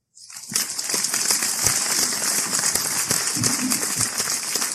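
A crowd bursts into steady, dense applause that starts abruptly and keeps going at an even, fairly loud level, with many hands clapping at once and no voices standing out.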